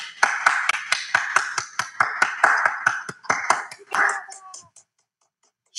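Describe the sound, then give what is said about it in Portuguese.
A steady round of hand clapping, done by hand as applause during a broadcast, about a dozen sharp claps in quick regular rhythm, fairly loud, fading out into a brief scatter before going silent. “Tem uma coisa que a gente faz no Clubhouse que é, é apertar o microfone e abrir, fechar, abrir, fechar ele rapidinho, que é sinônimo de palmas. Não posso fazer isso porque a gente está transmitindo, né? Então aqui vai no modo manual mesmo.”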